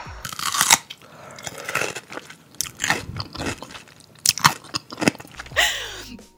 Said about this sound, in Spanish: De hecho, cuando dijiste que era sonido de pepinillo y lo escuché hoy, me dieron unas ganas de comer pepinillos.